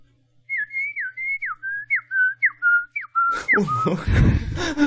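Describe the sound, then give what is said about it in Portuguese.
A person whistles a rapid series of about ten short, chirpy notes imitating a bird call, each a quick pitch sweep, before the whistle dissolves into a burst of laughter and noisy breath. “Eu não sei o nome desse pássaro, mas ele faz.”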